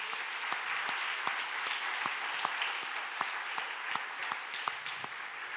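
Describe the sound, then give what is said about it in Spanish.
A church audience claps for Jesus steadily, a dense, continuous patter of many hands filling the space, with a few sharper individual claps popping out above the steady wash; no one speaks. “¿Alguien le puede dar un aplauso a Jesús por eso, iglesia?”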